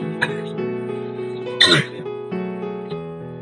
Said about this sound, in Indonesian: ini juga aku lagi batuk ya